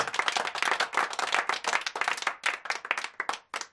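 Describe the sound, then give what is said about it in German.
A burst of applause at the end of an intro jingle: many hands clapping in a dense, steady patter of sharp bright claps for a few seconds, with gaps appearing near the end as it thins out. “Hey, du hast wieder eine tolle Kennung fabriziert mit einem Applaus am Ende.”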